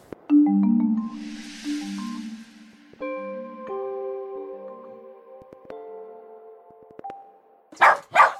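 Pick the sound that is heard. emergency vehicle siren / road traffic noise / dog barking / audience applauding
dog barking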